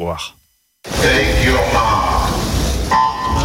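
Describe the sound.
A loud electronic start siren at a swimming competition blares abruptly after a brief voice giving the starter's orders and a moment of silence, sustained over a roaring, echoing crowd.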